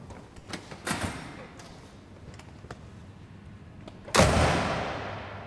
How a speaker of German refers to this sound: Wir gehen erst einmal hinein in das Institut und durch eine schwere Tür.